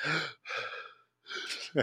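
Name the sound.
imitated gasping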